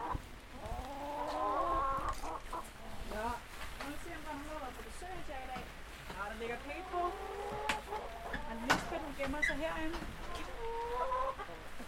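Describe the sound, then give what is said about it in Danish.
In a hen house, several hens cluck and murmur, a steady run of overlapping calls with occasional sharper squawks rising above the chatter throughout. “Så er vi på damerne. Hej, hønsefaser.”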